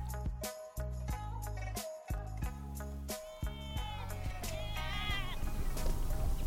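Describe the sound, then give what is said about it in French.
Sheep used for eco-grazing bleat repeatedly, wavering, nasal cries over a steady farmyard background, punctuated by several sharp knocks or clatters early on. “Des moutons, des ânes, des chèvres, des chevaux et même des lamas en guise de jardiniers.”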